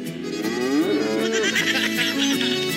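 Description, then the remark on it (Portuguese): A loud, drawn-out lowing from an ox, one continuous call that rises and wavers over a few seconds, strong, with no talking. “Alô, ó o boi, ó o boi!”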